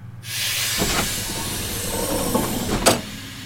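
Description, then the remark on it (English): A steady, loud hiss of pressurized air as the heavy inner airlock doors of a spaceship slide open, with low mechanical rumbling underneath and a sharp burst of venting near the end before it eases off. “Inner doors opening in three, two, one.”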